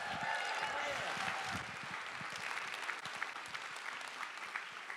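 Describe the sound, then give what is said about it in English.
A crowd applauds steadily for the creative team after a saxophone solo, dense clapping at an even level for several seconds, with a few faint voices and whistle-like tones mixed in near the start. “Let's give our creative team one more big round of applause.”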